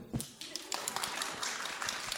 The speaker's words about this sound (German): Applaus, wer das auch findet.